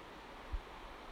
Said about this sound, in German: Und da unten ist ein Fluss oder ein Bächlein. Er rauscht.